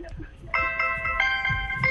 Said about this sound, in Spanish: ¿La alarma despertable de un celular?